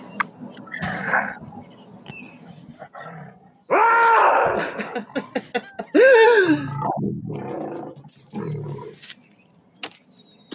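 Two loud, rough tiger roars, each lasting about a second, with lower breathy growls and huffs scattered before, between and after them.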